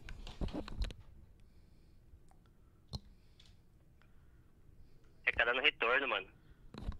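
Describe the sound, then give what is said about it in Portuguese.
Choppy phone-line audio breaks up into short bursts of garbled, tinny speech with sharp clicks and gaps of near silence between them, over a faint steady hiss. “Dá um salve aí pra vocês aí que tá cortando aqui a ligação, mano.”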